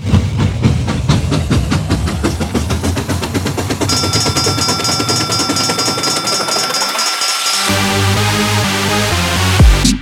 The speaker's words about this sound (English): But hold on tight. I think this train's about ready to move. Move.